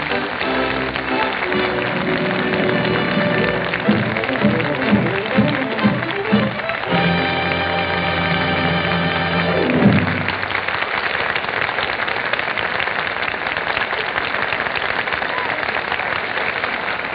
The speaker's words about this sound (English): I'm sure all of us agree that Bing Crosby, Bob Hope, and Betty Grable well deserve that enthusiastic applause from our Gulf Screen Guild Theater audience.